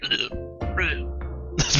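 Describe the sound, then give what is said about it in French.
A voice imitates a bubbly, gurgling snore: a loud stretch of wet, croaking rumbles with throaty bursts, continuous for nearly two seconds and ending in a rough snort. “espèce de ronflement avec des bulles, puis genre c'est comme...”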